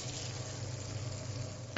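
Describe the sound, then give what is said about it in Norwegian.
Steady sizzling of meat frying in a pan, left undisturbed, a continuous crackling hiss with a low hum underneath, no talking. “I forhold til steking så handler det om at du skal ikke holde på å titte under den og gjøre så mye tull og tøys.”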